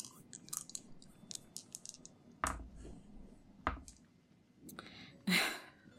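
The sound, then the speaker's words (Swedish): Two dice rattle and clatter across a hard surface, a series of small clicks followed by a few sharper knocks as they tumble and settle. “Jag vill eh, för bieffekten att eh, du slår två tärningar för att se hur lång tid bieffekten kommer vara.”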